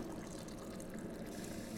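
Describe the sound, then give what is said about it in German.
Hot water is dispensed into a jug, a continuous rushing and splashing stream that holds an even level throughout, with no voices. “Jetzt zapfe ich mir das Wasser”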